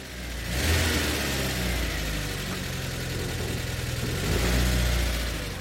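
A car engine starts up in Åkra, a small village in Kvinnherad in south-western Norway, and revs, then settles into a steady running drone before accelerating again near the end, loud with no voices.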